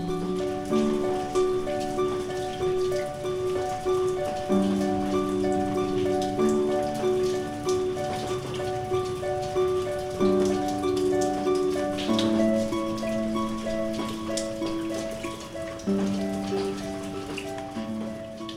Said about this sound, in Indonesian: Dan Kalian dengar suara itu? Iya, suara hujan.